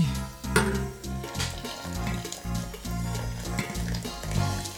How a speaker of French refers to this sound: Mettons l'eau que j'espère n'a pas trop refroidi.